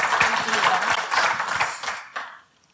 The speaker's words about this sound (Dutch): Nou, ik eh, allereerst eh, een fantastisch applaus.